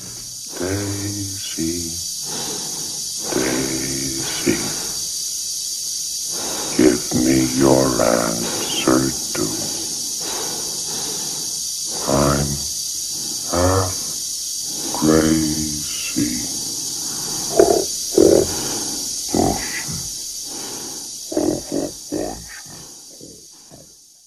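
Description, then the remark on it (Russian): A computer-synthesized voice sings a slow, drawn-out song in separate sustained phrases, clear over a constant thin hiss, with short gaps between lines; the song later used by Kubrick in 2001: A Space Odyssey, in the scene where the computer's blocks are removed. “Песенка потом стала легендарной, потому что она была использована Кубриком в «Одиссее 2001», если вы помните там эпизод, когда из компьютера вынимают э, блоки, и он постепенно умирает, и вот его последние воспоминания – это вот эта песня.”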